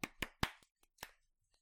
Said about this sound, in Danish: Jeg sagde klap, okay, okay, vi klapper, klap, vi klapper, hey, hey. Så begyndte alle folk at klappe.